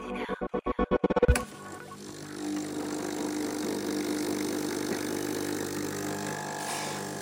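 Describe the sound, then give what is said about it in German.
An espresso machine brought into a studio brews espresso, starting with a quick burst of about ten rhythmic pulsing knocks, then settling into a steady, buzzing mechanical drone at even volume. No one speaks. “Jan hat extra seine Espressomaschine mit ins Studio gebracht, damit wir es hier richtig gemütlich und schön haben bei Eat, Read, Sleep.”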